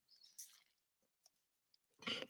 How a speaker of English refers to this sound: Take a little sip of the coffee.